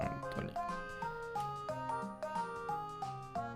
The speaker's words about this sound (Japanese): BGM の音が大きいかも。あ、そうですね。ちょちょっと下げますね。こんな感じでいかがでしょうか。